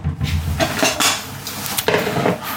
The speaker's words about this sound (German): so, jetzt räumen wir noch schöne Spülmaschinen aus. Ja. Damit ihr auch noch ein bisschen so, Action habt. Die bitte links neben den Ofen in die Schublade. Ja. Einfach irgendwie rein. Ist drin.